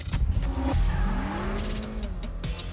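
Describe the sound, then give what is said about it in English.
A turbocharged 3.0-liter V6 engine of an Acura TLX Type S sports sedan, rated at 355 horsepower, revs loudly and steadily. Its pitch sweeps up and down with a deep rumble and sharp transient bursts, with no voices. “the impressive performance of the new Acura TLX Type S. With a 3.0-liter V6 turbocharged engine that generates 355 horsepower.”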